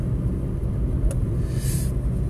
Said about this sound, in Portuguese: Que ventania está.